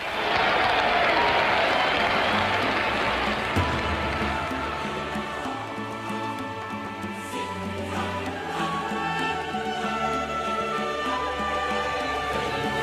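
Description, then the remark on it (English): A large racetrack crowd cheers in a loud, continuous roar that holds steady throughout, with faint tonal, droning sounds emerging through the noise in the later half. “this crowd sees them. Just take a listen.”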